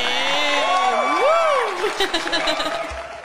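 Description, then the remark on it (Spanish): A loud, sustained whooping cheer from a studio audience of only two people on Basurero FM, a voice sliding up and down in pitch, then breaking into a burst of clapping and scattered shouts for the last second or so. “Habéis oído lo fuerte que suena nuestro público.”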